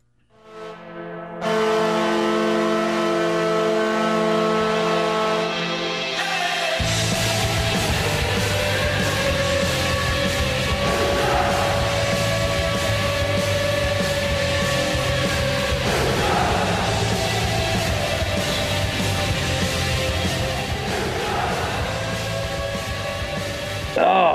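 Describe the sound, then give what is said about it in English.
The Devils' hockey goal horn blares one long, loud, low sustained blast for several seconds, then cuts into a loud, driving rock song that plays to the end. “after the horn is when the song starts”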